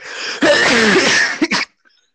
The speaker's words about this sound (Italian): Hai visto? È uno starnuto, l'allergia.